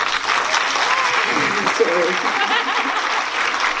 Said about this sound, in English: En daarvoor zou ik graag een warm applaus willen hebben van jullie.